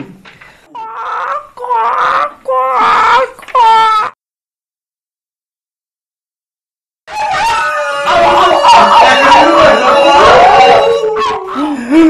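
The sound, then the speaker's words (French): Drawn-out, wavering wolf howls rise and fall in several loud bursts, then after a few seconds of silence a dense, sustained chorus of overlapping wolf howls and wails swells up. “J'espère que les loups ne mangeront, mangeront pas.”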